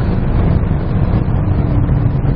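A car accelerating continuously at high speed, having reached 200 km/h, heard as a steady, loud, low roar of road and wind noise with only a faint, muted engine tone underneath, its high-revving engine sound weaker than a BMW's, continuous and unchanging throughout.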